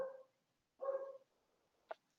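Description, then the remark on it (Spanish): A large black German shepherd-type dog barks twice, deep, with a short gap between the barks, followed by a sharper, higher yip near the end. “Un pastor alemán, es de la familia de los pastores alemanes, pero es negro. Y está muy bulloso hoy, está muy loquito.”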